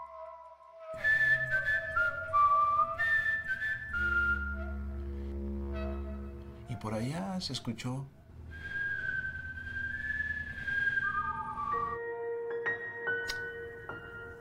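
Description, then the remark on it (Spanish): A person whistles a series of clear, sustained melodic phrases, rising and falling like a signal call, steady, with a low droning hum partway through and a brief spoken remark. “Recuerdo que empecé a chiflar yo.”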